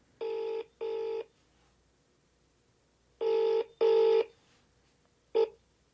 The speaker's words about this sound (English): Call me, and there's a number, and if you call that number, this is what you hear.